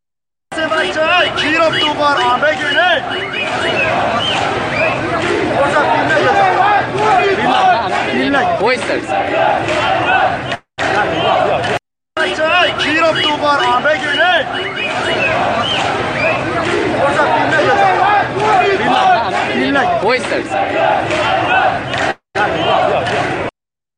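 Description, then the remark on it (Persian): A large crowd in the streets of Izeh chants slogans against the Quran loudly and continuously outdoors, many voices shouting together in rhythmic bursts, with two brief cuts of silence before the chanting resumes. “دوباره بشنوید توی خیابون های ایزه است”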